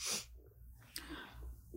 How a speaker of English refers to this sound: Good sneeze.